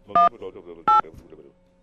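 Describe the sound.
Two short, bright telephone keypad tones beep about half a second apart as a dropped phone call is dialed again, each a steady dual-pitched chirp, with faint murmuring voices underneath and fading afterward.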